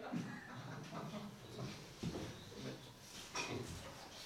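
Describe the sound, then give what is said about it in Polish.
A person imitates a goat's bleat, producing a few quavering, nasal bursts in quick succession, fairly loud, with no other talking. “A ten, no, to, ten to już nawet trudno wyczuć, bo meczy, okej?”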